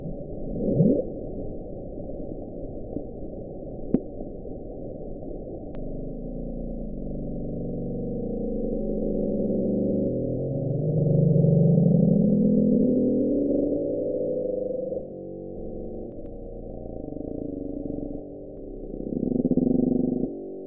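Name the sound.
bloop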